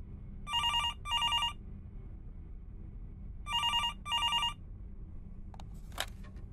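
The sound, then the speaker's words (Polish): A telephone rings twice in classic double-burst trills, clear, over a low steady hum, then a brief click as the line is picked up. This is a 911 emergency call placed by a young woman on 15 January 2001 at 21:45 to report a possible domestic disturbance at a neighbour's. “Poniżej znajduje się zapis rozmowy telefonicznej 911, wykonanej przez młodą kobietę 15 stycznia 2001 roku o godzinie 21.45.”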